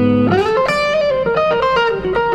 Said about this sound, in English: Now that's the amp 11 with the compressor.